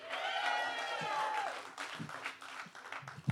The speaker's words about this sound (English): Boston Calling, how is everybody doing? All right. Another round of applause for ….